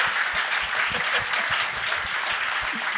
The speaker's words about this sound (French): On l'applaudit.